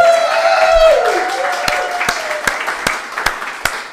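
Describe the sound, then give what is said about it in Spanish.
About six slow, evenly spaced claps ring out, sharp and fairly loud, following a sustained tonal, musical-sounding swell that fades as the clapping begins. “¡Eh, un aplauso! Son 100 programas también.”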